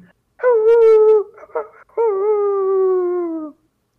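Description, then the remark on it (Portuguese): A voice imitates a wolf howling: two long, steady, drawn-out howls with a short breathy sound between them, loud. “Vocês ouvem lá de longe um barulho de uivo assim.”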